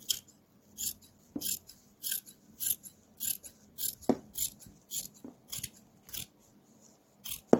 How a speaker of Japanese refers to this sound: このボーダーの服というのは横のラインがあるから切りやすいですね。では、ハサミを入れます。